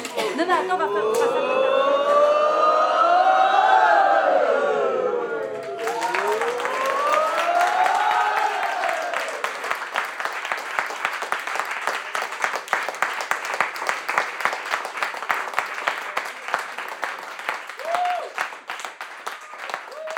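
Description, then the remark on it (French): As a closing ritual, a group applauds themselves for what they have done: loud rising and falling whoops give way to dense, sustained clapping that continues steadily for about fifteen seconds. “Peut-être que le rituel de clôture, ça pourrait être ça, envoyer une salve d'applaudissements à nous tous pour tout ce qu'on a déjà fait.”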